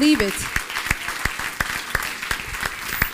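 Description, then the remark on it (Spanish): An audience breaks into loud, sustained applause, a dense wash of overlapping claps with sharper individual claps standing out, after a short vocal sound at the very start. “No, ese fuerte aplauso si usted lo cree de verdad”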